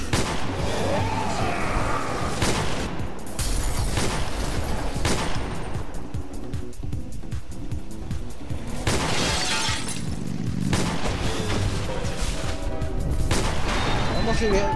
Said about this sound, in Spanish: Cierto. Vamos a dispararle.